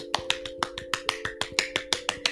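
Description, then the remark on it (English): Applause for a commenter given as finger snapping: a quick, steady run of about fourteen crisp, sharp snaps, evenly spaced, with a faint constant hum underneath and no talking. “I like you get a round of applause yourself.”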